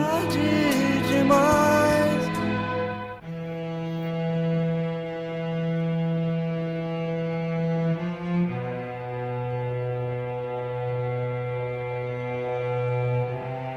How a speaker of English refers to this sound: So this symphonic part here, very imagetic, very cinematic, was arranged uh, by …